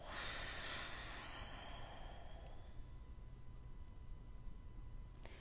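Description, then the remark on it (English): A single long, soft exhale through the nose during a breathing exercise, breathy and hissing, fading out after a couple of seconds into quiet room tone. No one speaks. “Breathe in through your nose and then breathe out through your nose.”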